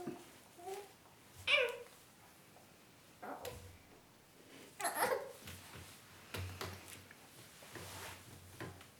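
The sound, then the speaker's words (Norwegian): A baby babbles and coos in short, scattered vocal bursts, moderately loud, with a few sharper squeals and some faint thumps in between. “Vi har med oss en baby her òg, som har sine naturlige behov.”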